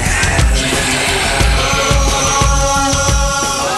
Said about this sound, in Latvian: kas ir brīnišķīgs, brīnišķīgs skaņdarbs. Un, viņš tāds gan enerģisks ir.